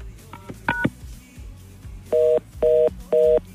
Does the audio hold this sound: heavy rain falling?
no